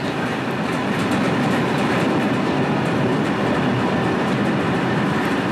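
A train rumbles steadily along the tracks, loud, with a constant dense roar and a faint rhythmic clatter of wheels running underneath for several seconds, on a train trip headed for Lisbon.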